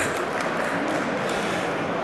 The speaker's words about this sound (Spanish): Hombre, un aplauso por favor a la poeta aquí del gamer.